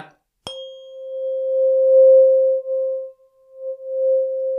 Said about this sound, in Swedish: Vad håller du på med? från, från min stämgaffel. 528 hertz.